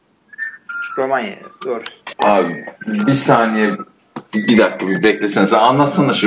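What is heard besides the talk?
phone ringing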